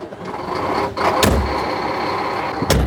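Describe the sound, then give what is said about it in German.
Someone climbs over the roughly one-metre-wide track of a tracked snow groomer and opens its heavy door, with two sharp metallic clunks, one early and one near the end, over the steady rumbling idle of the large machine. “Also einsteigen heisst, zuerst über die Raupen klettern, die sicher einen Meter breit ist, von dort dann die wuchtige Türen aufmachen und sich irgendwie aufzüchen.”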